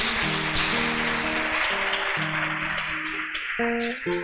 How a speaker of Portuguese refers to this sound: Você pode dar uma salva de palmas ao Senhor Jesus?